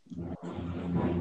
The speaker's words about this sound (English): Yeah, now you're echoing.